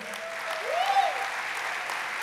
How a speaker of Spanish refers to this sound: ¿Cuántos le pueden dar un aplauso al Señor?